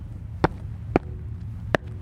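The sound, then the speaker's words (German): Three dull, hollow thuds of footsteps landing on a beach manhole cover that is not quite flat, spaced unevenly over a low steady background hum, each impact sharp with a brief resonant ring and a slight echo. “Ja, stimmt, das ist auch wieder ein Beach Manhole wenn man da drauf tritt, merkt man auch, der ist nicht ganz flach.”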